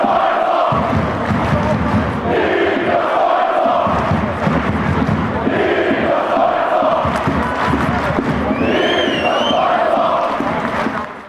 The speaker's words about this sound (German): Ja, und ob er da gespielt hat oder nicht, das war den HFC-Fans im Stadion auch fast egal, würde ich sagen. Die waren einfach nur froh, dass Niklas Kreuzer wieder da war und haben das auch lautstark zum Ausdruck gebracht.